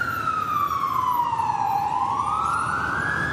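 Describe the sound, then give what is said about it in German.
A loud emergency vehicle siren wails on a New York street, its pitch sweeping slowly down and then back up over steady street traffic noise, continuous. “Und den Rest des Jahres tobt auf der Straße der Verkehr und, na klar, die Sirenen, sie klingen wie New York eben klingt.”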